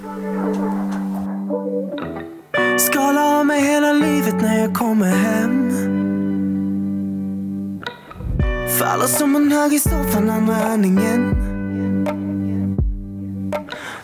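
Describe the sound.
A pop song plays at full volume, with a sung vocal over sustained synth chords and a steady beat, the music continuous and fairly loud throughout.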